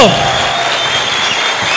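Steady applause from a group at the end of a programme, a dense continuous patter of clapping held at an even, fairly loud level for the whole short stretch.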